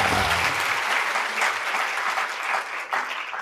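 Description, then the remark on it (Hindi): A crowd applauds steadily, a dense wash of many hands clapping at once, loud and sustained throughout with no voices standing out. “अभी तो केवल कल्पना करनी रही और उन महापुरुषों के नाम की तालियां बजाना ही रहा”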